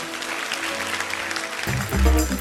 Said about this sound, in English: Come on, give Jesus a big clap this morning.